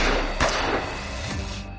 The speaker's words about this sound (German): Dann fallen zwei Schüsse.